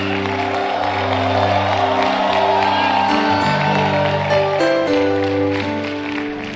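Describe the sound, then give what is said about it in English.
A large church audience claps, shouts and cheers to the Lord continuously and loudly, with whoops rising over steady sustained organ chords that shift pitch midway and continue throughout. “Some of you don't know how to shout.”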